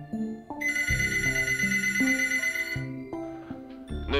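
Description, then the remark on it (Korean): A telephone bell rings in one sustained, bright burst lasting a couple of seconds as a widow calls the police, layered over steady background music that carries on after the ringing stops. No one speaks. “어느 날 경찰은 그 과부에게서 전화를 받았습니다.”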